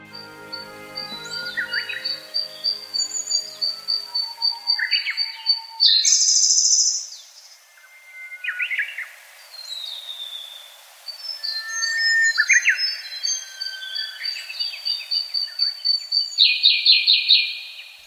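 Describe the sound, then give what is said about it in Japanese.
A 2010 pre-dawn chorus of songbirds in the Kirifuri Highland forest, dominated by a Siberian blue robin's repeated bright trilling phrases, with Japanese bush warblers and lesser cuckoos also calling in the background; continuous layered song, no voices. “よくさえずっているのはコルリですこのほかウグイスホトトギスの鳴き声も聞こえます”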